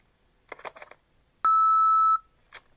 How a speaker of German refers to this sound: Bitte hinterlassen Sie nach dem Piepton eine Nachricht oder versuchen Sie es später noch einmal.